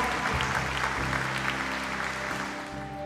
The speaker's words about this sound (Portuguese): Pode aplaudir o Senhor que é santo.